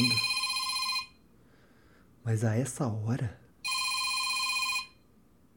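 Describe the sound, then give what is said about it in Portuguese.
A mobile phone ringtone rings loudly in two bursts of about a second each, separated by a brief spoken remark from a voice in between. “Meu telefone tá tocando.”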